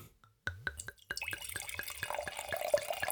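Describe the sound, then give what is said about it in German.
White wine from Penedès, Spain, trickles and drips into a cup, starting with a few separate drops and building into a steady patter of closely spaced drips that grows fuller toward the end. Nobody speaks. “Das hast du von, von der Tröpfelei rausgehört.”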